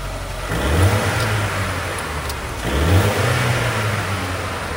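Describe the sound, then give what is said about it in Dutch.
The engine of a matte-grey four-door limousine coupé starts up and is revved twice, each throaty rise swelling loudly before settling back to a steady rumble, with no voices. “Eh, laat het geluid maar horen dan. Ik sling hem aan voor je.”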